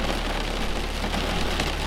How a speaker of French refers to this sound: à l'abri de la pluie et au cœur de l'orage.